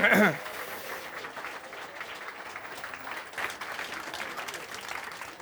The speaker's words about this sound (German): Und äh, wir sind hier live auf dem 32C3 und wir haben Publikum und das ist toll und ihr müsst jetzt klatschen, damit es auf die Aufnahme kommt wegen Atmo und so.